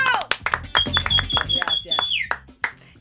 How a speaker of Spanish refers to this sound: El aplauso para recibir a la sextuple campeona del mundo, locomotora Olivera. ¡Bravo!